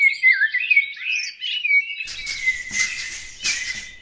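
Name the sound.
birdsong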